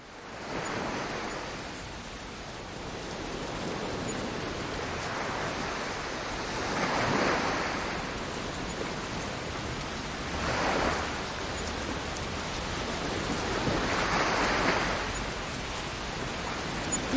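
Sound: rain falling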